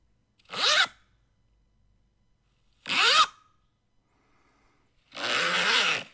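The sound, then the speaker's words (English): A zipper on a sweater rasps three times with pauses between: two quick, sharp zips, then a longer, steadier pull at the end. Fairly loud, with no talking. “There's more zips uh, in this sweater collection than a Gimp's costume.”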